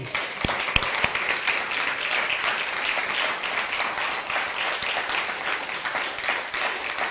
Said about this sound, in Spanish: Estamos muy contentos todos hoy, en este día. Un fuerte aplauso a todos nuestros visitantes.